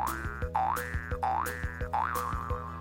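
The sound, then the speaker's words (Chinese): Springy cartoon boing sound effects for a story character jumping outside back into the snow repeat about four times in a steady bouncing rhythm, each a wobbling, sliding tone over a plucky musical backing, fairly loud, with no talking. “然后呢，就跳到外头，回到雪地里。跳跳跳！”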